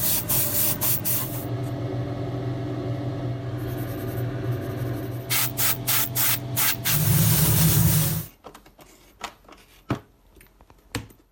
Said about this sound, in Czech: Určitě jste zachytili, že tam byla bruska, že tam byly další nástroje, byla tam i stříkací pistole, to jste poznali.